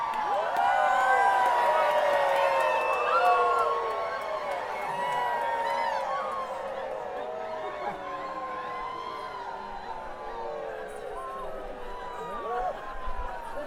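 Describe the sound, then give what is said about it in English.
Many voices of a crowd on a hill at Folk Fest howl together like wolves, long rising and falling wails overlapping in a dense, steady chorus for the whole stretch, loud at first and easing slightly later. “Or screaming, like making wolf howling sounds, for instance.”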